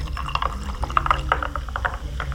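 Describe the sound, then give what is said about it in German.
Sparkling water is poured into a glass over rose ice cubes and an alcohol mixture, topping up a rose-raspberry cocktail: a steady fizzing trickle with many small, bright bubbling pops and gurgles over a low hum, with no talking. “Der Rest vom Glas wird dann nur noch mit Krüselwasser oder Limonade aufgefüllt und schon ist euer Rosenhimbeer-Cocktail fertig.”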